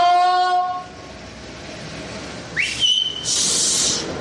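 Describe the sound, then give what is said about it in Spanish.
A loud, steady horn blast opens, then fades into background noise before a shrill rising tone and a harsh hiss follow. No one speaks. “con los bocinazos que me va a despertar la niña, hijo”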